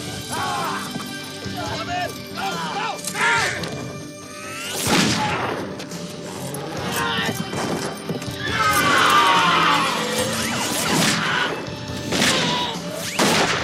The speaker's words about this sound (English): That horse just made a jet noise. Did you hear that?